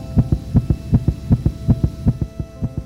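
A steady heartbeat thumps in regular lub-dub pairs, low and muffled, with a faint continuous hum underneath and no voices.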